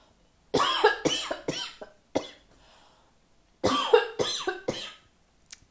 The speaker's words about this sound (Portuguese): Nossa, tá engasgando aqui agora. Só um minuto, gente. Pera aí que eu vou tossir, gente.